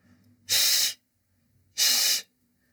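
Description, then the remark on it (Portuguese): A voice makes two separate 'shh' hisses, each about half a second long and separated by a short pause, demonstrating the weak 'ch' sound in pronunciation practice. They are loud, sounding like an angry cat's hiss. “Já o segundo som é o do CH fraco, aquele que é tipo um som de um gato zangado, chiando.”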